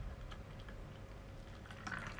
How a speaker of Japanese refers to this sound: 全部注いでいいのかなこれ注ぎきれんのかな